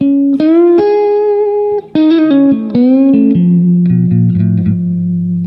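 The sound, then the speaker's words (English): An electric guitar with effects plays sustained, singing notes that dip and swoop in pitch as the whammy bar is pushed down and released, letting the springs pull the string back up, in a Jeff Beck style, with a busier run of lower notes toward the end. “Uh, but yeah, it's it's a oops, it's yeah, it's a whammy bar a lot of like bending the bar down and, and letting the springs pull the string up.”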